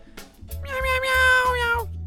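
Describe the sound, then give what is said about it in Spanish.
A single long, drawn-out cat meow, loud, holding a steady pitch for about a second before trailing off, over a low rhythmic rumble in the background. “Y voy a saludar al gato. Gato, ¿cómo andas? Miau, miau.”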